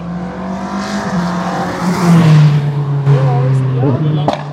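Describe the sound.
A car engine revs hard and holds a loud, steady droning pitch throughout, rising slightly partway through, with indistinct voices mixed in underneath.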